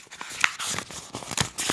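Papers being grabbed from someone's hand and rustled: a quick flurry of crinkling, crackling bursts, moderately loud, with no voices over them.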